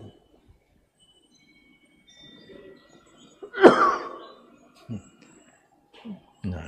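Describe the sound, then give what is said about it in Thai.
A single loud, sharp sneeze bursts out, followed by a couple of softer, brief throat sounds amid quiet. “แม่ครัวทำอะไร จามกันกินกับข้าวเนาะ”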